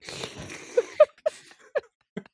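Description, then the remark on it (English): A voice mimics slurping a drink: a breathy sucking hiss, then four or five short squeaky gulps at uneven intervals, fairly quiet. “You're going to have to make your slurpy, pretend slurpy sounds.”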